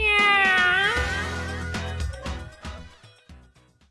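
A single loud, drawn-out cat meow, its pitch sliding down, then a short burst of bright jingle-like music with sharp hits that fades over a few seconds.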